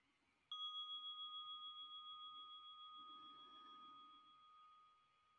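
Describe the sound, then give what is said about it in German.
A single gong is struck once to begin a 15-minute guided meditation, then rings on in a clear, sustained tone that gently pulses and slowly fades, heard alone with no voices. “Die Meditation beginnt mit dem Gong und endet mit dem Gong.”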